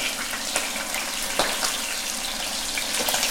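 Steady, dense sizzling of veal cheeks searing in hot oil, browned evenly on all sides, a broad hiss with scattered sharper crackles and pops throughout, no voices.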